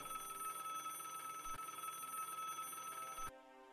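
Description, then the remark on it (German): A telephone bell rings continuously with a bright metallic trill, loud, for about three seconds before cutting off abruptly into a faint lingering tone as a guard answers it. “Das Telefon klingelt und der Wärter geht ran.”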